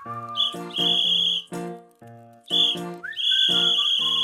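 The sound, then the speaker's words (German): A dog whistle blown in several shrill, piercing blasts, a couple short and others held longer, with no talking. “die Hundepfeife ist ein wunderbares Instrument im Hundetraining.”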